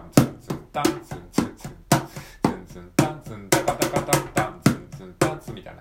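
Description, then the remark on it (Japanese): A quick drum fill played on a mini cajon: a flurry of sharp, dry slaps and knocks in uneven bursts, speeding up and then settling, with no voices over it. “まあこれをフィルインって言うんですけれども、これはね、あの、どういうところに使うかっていうと、えー、っと、基本的にはですね、セクションの変わり目に使われたりしますね。”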